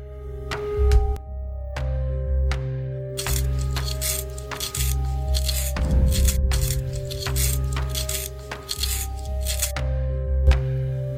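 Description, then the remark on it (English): A pencil is sharpened: a run of crisp scraping clicks and grinding strokes, thickest in the middle, over a steady low hum, with no voices. “Um, are you gonna do anything but sharpen that pencil?”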